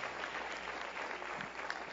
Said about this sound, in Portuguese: Aplaude ele com força, aplaude.